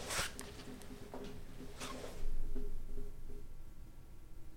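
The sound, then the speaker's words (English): An office chair creaks and rustles in a few short, uneven bursts, with a softer scraping texture lingering between them. No one speaks. “I don't know. It's probably your chair.”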